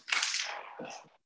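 A cat rolls a marble across a hard floor, a brief hissing, rattling roll lasting about a second, with a low clatter as it slows. No one speaks.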